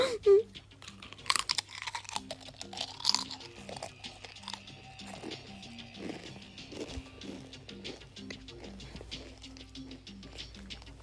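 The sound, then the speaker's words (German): Loud crunching of potato chips being chewed, sharp crackly bursts repeating irregularly throughout, over a steady low humming background with faint tonal sounds. “ich werde jetzt nicht mehr zu den Chips kommentieren.”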